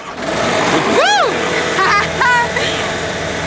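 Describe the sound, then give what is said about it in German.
A tractor engine, started by turning the key forward, starts up and runs with a steady, loud rumble, its pitch swooping up and back down once in a brief rev before settling into a rough drone, with further small revs near the end. “Einfach nach vorne drehen und dann springt der Motor an.”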